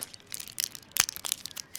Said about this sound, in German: Er findet den Blister, schluckt zwei blaue Pillen, wischt sich das Gesicht mit einem Stofftaschentuch ab.